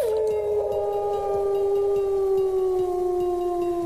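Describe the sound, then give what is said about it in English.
Mother Wolf answers Sher Khan's roar in a cave with a long, sustained cry, a loud tonal wail that holds steady and slowly sinks in pitch for several seconds, heard alone with no talking. “The roar was answered by Mother Wolf.”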